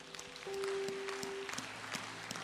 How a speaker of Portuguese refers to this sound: Aplaude ele, aplaude.